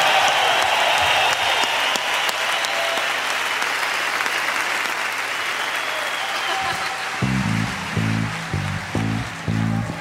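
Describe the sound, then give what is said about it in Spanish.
Steady crowd applause at a rock show, given for disabled guests and their families, fills the whole stretch, a dense wash of clapping, and near the end a low, pulsing musical tone with a repeating rhythm comes in beneath it. “Que soy un aplauso para ellos y para sus familias que vienen a traerlos al rock and”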